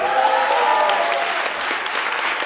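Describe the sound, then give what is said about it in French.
An audience claps steadily, a dense, even wash of many hands with no pauses, holding at a fairly loud level throughout before a sharper burst at the very end. “Voilà, applaudissements.”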